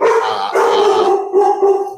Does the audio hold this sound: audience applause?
no